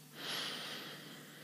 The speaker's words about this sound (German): Eins. Wir atmen ganz tief ein durch die Nase und ganz tief aus durch den Mund.